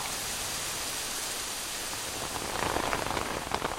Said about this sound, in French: Il se met à pleuvoir.